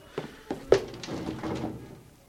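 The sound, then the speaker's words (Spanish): Three fairly sharp knocks on a door, evenly spaced in quick succession, followed by a low, muffled rustle of room noise as the knocking stops. “Llamar a la puerta. ¿Quién será?”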